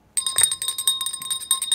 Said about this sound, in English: This that ain't gonna work. I know. I got to get your bell fixed. that ain't gonna work. We need to go to a bell repair shop.